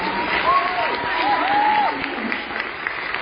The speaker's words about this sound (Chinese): 真的，鼓掌，他们可以。